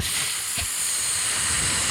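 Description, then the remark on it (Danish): A person hisses like a snake, imitating a character who can only speak snake language, a steady, breathy, high sibilant sound sustained for about two seconds without a break, with no talking. “Han kunne, ikke, han kunne kun snakke slangesprog, så han sidder og sysser på den, hver gang de spørger ham om noget.”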